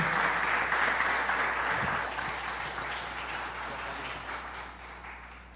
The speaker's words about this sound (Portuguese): Queria uma salva de palmas para ela, por gentileza.